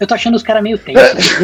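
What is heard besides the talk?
sneeze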